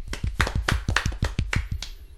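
A short burst of applause for Alexander Sørloth, top scorer in the Turkish league: crisp, evenly spaced claps at a steady quick rhythm, about a dozen in two seconds, fairly loud and alone with no talking.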